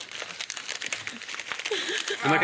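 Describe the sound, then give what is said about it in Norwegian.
Busy crinkling and rustling of paper, like gift wrap being torn and pulled open, continuing throughout with voices talking faintly underneath toward the end. “Vi må skynde oss, sånn at vi får opp den pakka.”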